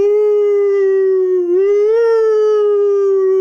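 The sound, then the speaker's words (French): A single long wolf howl used as a jingle, loud, holding a steady tone that dips slightly in pitch midway before rising and sustaining to the end, with no talking. “Et c'est quoi le jingle d'histoire Ce sont les loups.”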